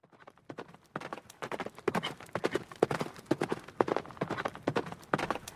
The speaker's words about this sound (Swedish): I bakgrunden kunde man höra en häst galoppera och mot en vacker solnedgång kom Link ridandes med svärdet i högsta hugg.